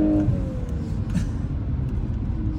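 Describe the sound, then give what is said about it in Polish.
A Volkswagen Golf R drives along with a steady low engine and road rumble, heard from inside the cabin. A faint whine briefly dips in pitch at the start, and no one speaks. “Jeśli chodzi o ten, o e, prowadzenie, świetnie się prowadzi ten samochód.”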